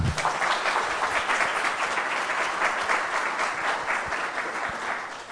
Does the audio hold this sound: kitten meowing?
no